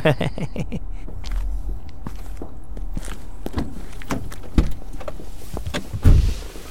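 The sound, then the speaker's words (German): Sounds of a person's own car: an electric window motor whirs amid scattered clicks and shuffling, then a couple of solid thuds near the end, like a car door being shut. “So, das ist mein Auto.”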